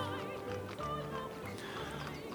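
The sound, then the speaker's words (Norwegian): A horse and cart leaving Wittenberg in April 1521 on a 600 km journey rolls along with hooves clip-clopping in a steady rhythm, heard continuously at moderate volume with no voices over it. “Den 2. april i 1521 forlater han Wittenberg med hest og vogn og legger ut på en 600 km lang reise som skal ta han 14 dager.”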